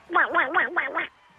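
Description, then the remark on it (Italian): A person imitates a duck, letting out five quick, nasal quacks in a steady rhythm, fairly loud, with nothing else audible behind them. “Com'è la papera transgender? Fa così.”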